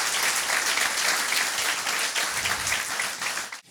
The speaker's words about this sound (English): Let's give God a hand of praise